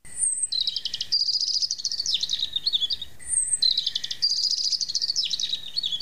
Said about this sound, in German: Nur der Wind kam mit leisem Atem und trug aus den Wiesen das Zirpen der Grillen zu ihnen herüber. Und manchmal regte sich irgendwo in den Zweigen ein Vogelstimmchen.